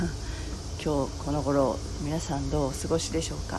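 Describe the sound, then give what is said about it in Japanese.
Cicadas drone steadily outdoors in the background as the weather turns cooler, a constant high buzzing that sits beneath a person speaking and briefly laughing while recording a morning audio broadcast. “だいぶ、えーの、の涼しくなってきてあのここのセミの声も聞きながら音声配信するのも楽になってきました”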